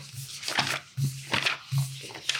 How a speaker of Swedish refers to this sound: Så det finns till och med en karta som jag har tagit med här nu. Ska vi prassla lite så det hörs bra?